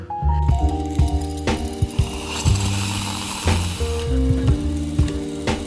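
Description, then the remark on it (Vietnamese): A loud drilling noise: a mechanical whine with steady pitched tones that shift in steps, broken by sharp clicks and ratcheting bursts over a constant gritty hiss. No one speaks. “nếu không thì mình có biết giữa tiếng khoan đến này mình biết nói chuyện gì đây”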